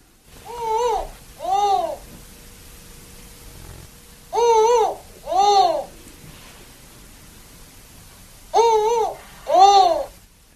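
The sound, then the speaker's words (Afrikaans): A spotted eagle-owl calls three times, each a pair of hollow, clear hoots, spaced a few seconds apart, loud over a faint steady background hum. “Dan nog 'n bekende wat hy genoem het is die uh, eh, gevlekte ooruil wat so klink.”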